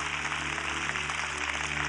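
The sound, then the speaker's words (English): An audience applauds and cheers, a dense, steady wash of clapping and crowd noise that holds evenly throughout, with a low background hum underneath, as people dealing with addiction come to the front at a church service. “Can we cheer them on as they come? Come on, put your hands together.”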